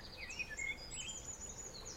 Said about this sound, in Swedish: Vi har fåglar.